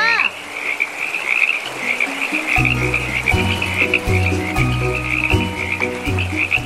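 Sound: frogs croaking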